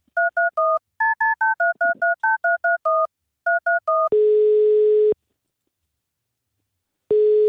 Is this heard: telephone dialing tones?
yes